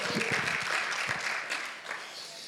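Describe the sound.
A crowd claps steadily and fairly loudly, a dense wash of many hands that holds for a couple of seconds and then eases slightly, with a few voices faintly mixed in.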